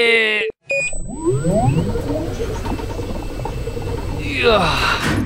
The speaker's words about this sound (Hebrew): טוב, ניכנס למכונת הזמן המצ'וקמקת שלנו וניסע לשנת 1890 אל העיר לונדון. נדחה פנימה, אוי, היד, רגע, נלחץ על הכפתורים.